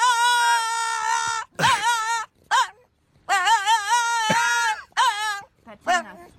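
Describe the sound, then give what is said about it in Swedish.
A viral dog named Walter whines in a series of high, wavering cries, some long and drawn out, others short and clipped, with brief pauses between them. “Ja, det är, Ja, mer än ett, det är mer än ett skall ändå. Ja, det är väl ett jämmer?”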